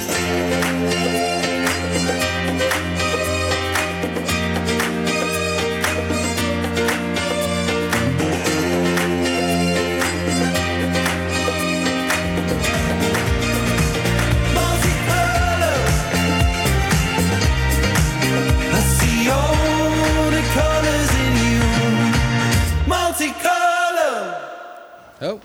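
A pop song plays loud and steady, with a full band, a driving beat and strong bass that kicks in midway, then cuts off abruptly near the end.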